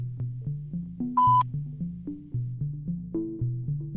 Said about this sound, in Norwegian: Velkommen til talepostkassen. Legg igjen beskjed etter pipetonen.